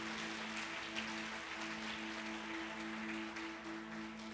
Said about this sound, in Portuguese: Aplauda Jesus por essa obra.